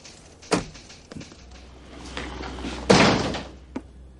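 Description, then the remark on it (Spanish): The door of a police captain's office is pushed shut from inside with a firm thump, followed by a louder slam and a few smaller knocks and rattles, with no voices around it. “Guay cierra la puerta por dentro.”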